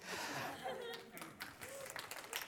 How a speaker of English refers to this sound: Yeah, you can give her a clap.